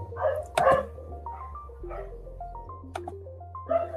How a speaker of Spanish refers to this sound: Sí, es el mío. Es que no estoy en mi cuarto hoy. Hay un perro espectador. estoy en la ventana y se oye todo.